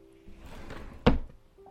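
A shop's wooden door is pushed open: a soft scraping rustle builds for under a second, then a sharp loud clack, after which it fades to quiet with a faint steady hum.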